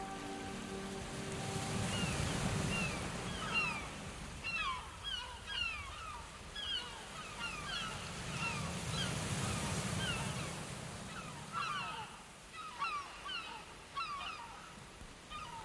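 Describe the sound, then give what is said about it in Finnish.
Waves of the Arctic Ocean off the coast of Ruija, the northernmost edge of Lapland, wash onto the shore in slow, rolling swells that rise and fade, while many seabirds call and honk busily over the surf in early May. No one speaks. “Tämä pohjoinen maailman Takalapin laitimmainen reunamaa on ruija, ja sen ääriä huuhtova ulappa ruijan meri, jo vanhastaan kuultu kolkko jäämeri.”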